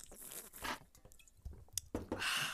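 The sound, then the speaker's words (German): Handling of a plastic water bottle: crinkly squeezing and crackling, a few soft liquid sounds and gulps, and a sharp click, all quiet without any talking. “Ich habe mir hier mal äh, Wasser geholt, natürlich, ne?”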